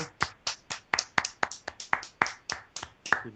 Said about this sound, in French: Ah, mais c'est excellent, ça. Euh, moi, j'applaudis.